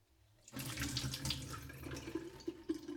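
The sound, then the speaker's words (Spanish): A kitchen tap runs steadily, water splashing over soaked almonds in a colander as they are quickly rinsed, a continuous rushing spray with small irregular clatters for a few seconds. “vierto la jarra de almendras remojadas en un colador y las enjuago rápidamente bajo el grifo de la cocina.”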